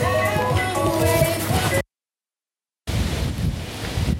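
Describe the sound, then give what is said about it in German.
Strong wind roars and buffets the microphone outdoors, a loud, continuous rumbling rush that cuts out abruptly for about a second, then returns just as heavily. “Schön Wind, ja?”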